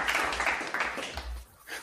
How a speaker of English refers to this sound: Golf clap. Golf clap